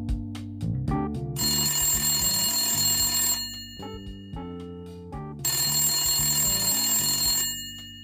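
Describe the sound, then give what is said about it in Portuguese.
The old mechanical bell of a corded landline telephone rings loudly in two long jangling bursts separated by a short pause, over a soft low musical bed. “você sabia que teve uma época que o telefone tinha fio?”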